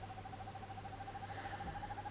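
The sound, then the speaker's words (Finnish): A northern hawk owl gives a long, rapid, bubbling trill of mid-pitched notes that runs steadily through the whole clip, with a low, constant hum underneath and no talking. “Hiiripöllö saattaa yllättää melkein mihin vuoden aikaan tahansa.”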